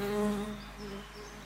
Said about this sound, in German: Warte mal, warte mal, warte mal. Oh, da ist eine Fliege. Da ist eine Fliege, das ist eine riesengroße Biene, die gerade um mein Mikrofon kreist.